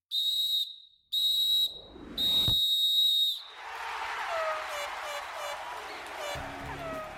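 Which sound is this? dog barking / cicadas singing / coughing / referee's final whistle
referee's final whistle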